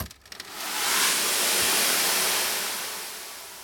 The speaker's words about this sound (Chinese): 小波啊，边说边把水往下倒，因为他们的城堡快要失火了嘛，小烟喷出了好多火和烟哦。那这一桶水呢，浇熄了火焰，也淋得坏心的哥哥们呐、啊，满身满头的湿哒哒。